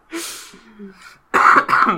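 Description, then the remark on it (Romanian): A soft, breathy throat sound comes first, then two loud coughs in quick succession, the second slightly shorter, with no talking. “Mă bucur că tușești.”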